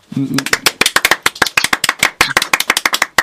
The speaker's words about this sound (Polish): Więcej się nie da. Wszystkich w studio zaangażowałem do braw.